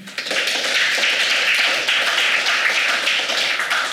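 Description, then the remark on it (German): Steady applause from an audience welcoming a guest at a premiere event fills the whole stretch, a dense wash of many hands clapping at once, fairly loud, with no voices over it. “Da kann man ruhig mal klatschen.”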